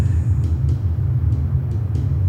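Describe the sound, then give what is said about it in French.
A deep, steady roar of a Canadian military jet passing overhead from south to north, its low rumble filling the whole stretch without fading, with faint brief clicks above it and no voices. “Un avion de guerre passe”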